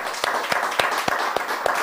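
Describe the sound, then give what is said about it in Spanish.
A crowd applauds steadily after a Shavuot farewell greeting, with sharper claps landing in an even rhythm about every quarter second over a dense wash of hand noise. No one speaks. “Fuerte aplauso.”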